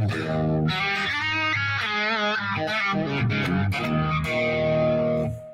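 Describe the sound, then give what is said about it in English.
Loud distorted electric guitar rings out with a dominant seventh chord, then shifts through a few more sustained chords with a gritty, buzzing tone, played alone without any talking. “And when you hit that dominant chord, that seven, it's so rock and roll.”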